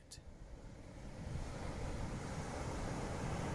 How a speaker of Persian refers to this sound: هوا رو به تاریکی رفته و دریا مثل قیری سیاه به ساحل میکوفت. باران پاییزی هم با ملاحظگی به سر شهر میریخت.